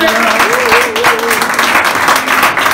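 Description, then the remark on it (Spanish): Loud, steady applause from a crowd, given for a little girl being presented that day, fills the whole stretch, a dense wash of clapping, with a voice briefly calling out underneath it. “Y le damos un aplauso fuerte.”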